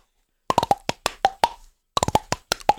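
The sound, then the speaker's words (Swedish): A quick series of hollow mouth pops made by a man tapping his cheeks, about a dozen in two bursts with a short pause between, resonant and fairly loud with no talking. “Med kinderna gör han det här.”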